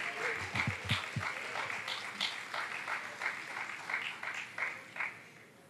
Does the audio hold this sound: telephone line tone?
no